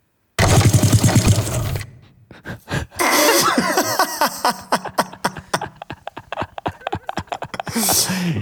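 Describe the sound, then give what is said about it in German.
A massage gun runs, loud and buzzing, its rapid percussive thumping coming in fast regular bursts that shift in tone as it presses and lifts. No one speaks. “meine Massagepistole.”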